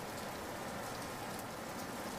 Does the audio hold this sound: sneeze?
no